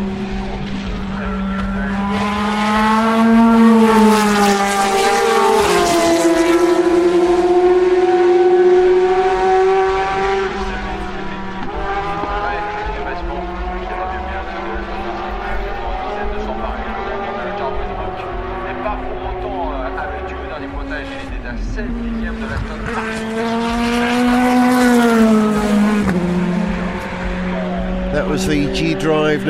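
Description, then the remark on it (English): A Porsche race car engine at the Le Mans race bangs away loudly and steadily, its pitch rising and falling through the gears, with a surge early on and another swell near the end. “Followed by another Porsche banging away.”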